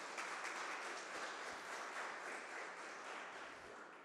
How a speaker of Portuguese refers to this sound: E você que quer isso, aplauda Jesus bem alto, gente.